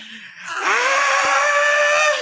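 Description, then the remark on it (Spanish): A voice lets out a loud, sustained wailing scream, imitating a crying child, holding a high strained pitch for nearly two seconds before trailing off. “Entonces, a pesar de que no me había dolido, empiezo a gritar.”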